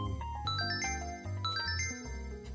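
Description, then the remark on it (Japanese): A bright, melodic electronic alarm chime, marking a break time, plays a short repeating tune of clear bell-like notes over a low sustained tone, steady and fairly loud with no one speaking. “ここでアラームが鳴ってしまいましたね、えー、まだまだ聞き足りませんけども一旦ブレイクタイムとさせていただきます”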